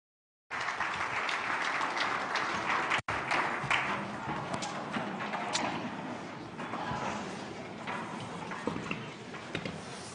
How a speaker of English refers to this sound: would you stand to your feet? Would you give him a warm clap and welcome?